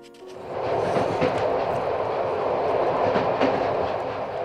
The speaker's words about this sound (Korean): 당시 전 완행 열차를 타고 학원에 다녔는데요.